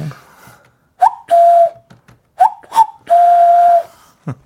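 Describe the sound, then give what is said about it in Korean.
Korean entertainer Nam Chang-hee imitates a cuckoo as a party trick, an encore, with a clear, whistle-like two-note call, a short rising note followed by a longer held lower tone, repeated twice with brief pauses between. “개인기 뻐꾸기 네.”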